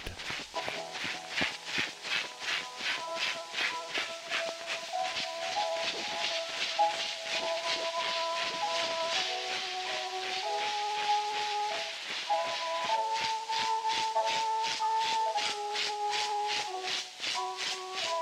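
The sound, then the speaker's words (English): A scratchy early Edison phonograph cylinder recording, one of the first recordings, of Arthur Sullivan's The Lost Chord: a slow, sustained melody moving in steady held notes, buried under loud continuous hiss and rhythmic surface crackle, with no voices. “And I'm going to drop in at this point the recording, the first recording, because it's still out there of the Edison uh, version of Arthur Sullivan's The Lost Chord.”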